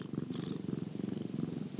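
cat purring

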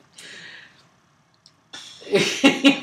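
coughing

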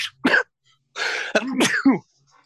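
sneeze

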